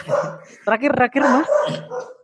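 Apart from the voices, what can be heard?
dog barking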